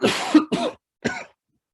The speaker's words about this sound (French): J'ai une toux chronique depuis euh, trois jours je vous assure, je n'ai pas le Covid.